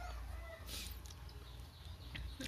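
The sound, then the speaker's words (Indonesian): Faint chickens clucking outdoors, a few scattered clucks over a steady low rumble of background ambience, with no one talking. “jadi ya yang paling kenceng berarti suara ayam sih harusnya suara burung”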